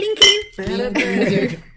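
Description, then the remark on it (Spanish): Glasses clink together in a toast among friends, a bright ringing chime, with people laughing and chattering around it. “Salud, amigos. ¡Salud!”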